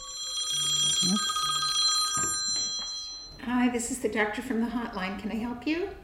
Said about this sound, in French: a cofondé un numéro d'urgence pour accompagner les femmes souhaitant avorter et depuis le 24 juin 2022, le téléphone n'arrête pas de sonner sur le fil.